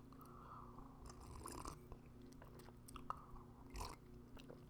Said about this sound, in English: So let me sip my coffee right quick.